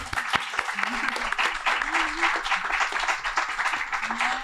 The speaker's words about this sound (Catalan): Uh, nois, noies, nois, uh, un aplaudiment, oi?